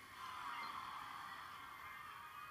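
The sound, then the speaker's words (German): Soft, steady rain pattering and dripping against a window pane, a continuous faint hiss of many small taps with no voices. “Äh, falls ihr gerade was gehört habt, das ist Regen, der auf mein Fenster tropft.”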